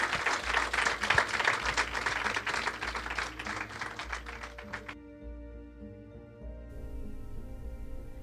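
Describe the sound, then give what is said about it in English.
Audience applause for the authors: dense, rapid clapping from many hands for about five seconds, then it cuts off abruptly and a soft sustained tone with steady harmonics carries on underneath. “Can we ha- please give a big round of applause to our amazing authors?”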